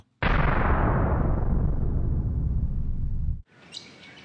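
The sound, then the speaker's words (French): A loud, roaring whoosh of magical effect sweeps for about three seconds, then cuts abruptly to quiet garden ambience where a bird chirps briefly in the background. “Je vous ai transporté dans le jardin de Jacques Maillou.”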